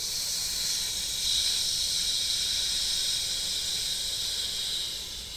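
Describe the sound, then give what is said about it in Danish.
A person produces one long, steady hissing "sss" sound as a vocal warm-up, sustained evenly for several seconds without any pause or talking. “Jeg tænkte, jo flere gange du gør det her, jo længere skal det der S-split komme til at være.”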